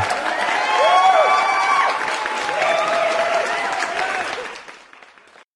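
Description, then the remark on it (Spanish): A crowd applauds steadily for about four seconds, clapping dense and sustained with a few cheers and whistles mixed in, then fading out quickly at the end. “Eh, bueno, y con este, este, aplauso me olvidé lo que iba a decir.”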